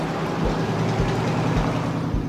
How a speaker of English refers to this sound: The senator could have flagged down the passing car, but what if they'd recognized him, photographed him?